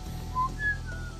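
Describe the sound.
A person standing by a car near a forest whistles three short tones, low, then high, then slightly lower again, soft and clear over a faint low hum with no talking.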